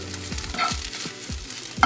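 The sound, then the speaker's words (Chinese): Rice pan-frying until slightly golden, a steady crackling sizzle with repeated low scraping strokes of a spatula stirring it, and a sharp clink near the end. No one speaks. “饭真的是每次煎的大家都觉得好爽，因为它很香”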